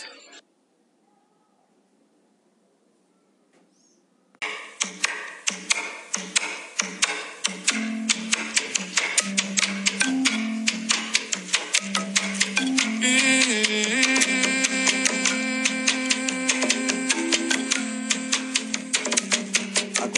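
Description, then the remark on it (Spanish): A traditional Conjunto de Marimba ensemble from the Pacífico Sur tradition starts after a few seconds of quiet, then plays loud and steady. Busy, rapid mallet strikes sound over sustained low tones, with all the instruments playing together and no voices. “Todos estos instrumentos en fusión suenan así.”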